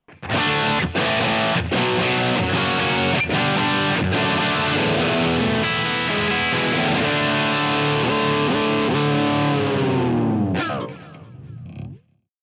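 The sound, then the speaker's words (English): A heavily distorted Charvel electric guitar plays loud, dense chords with a few sharp percussive stops early on, then rings out and fades with some scratchy noise at the end. “This is a very versatile guitar. Like, of course, it wants to rock out. That back pickup is massive.”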